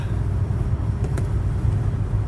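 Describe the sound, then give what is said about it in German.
Road traffic rumbles by in a steady, low, continuous wash of engine and tyre noise, with a couple of brief ticks partway through and no voices. “Konzentriere dich nicht auf den Verkehr, konzentriere dich auf deinen Podcast.”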